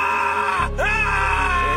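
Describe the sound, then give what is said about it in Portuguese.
A horse screams in pain, a loud, strained, drawn-out cry that breaks off for an instant, then surges back with a rising, harsh wail lasting under two seconds. “O cavalo gritava de dor.”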